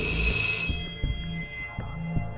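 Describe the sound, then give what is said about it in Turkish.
An apartment building doorbell being pressed gives a short, bright, ringing tone at the start, then cuts off, leaving a steady low rumble with soft, regular thumps underneath. “Ali zile bastı.”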